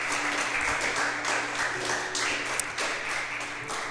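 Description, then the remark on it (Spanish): A church audience applauding the Lord together, a steady wash of many hands clapping at a moderate level for several seconds, dense and even with no talking over it. “¿Cuánto puedes dar un aplauso al Señor?”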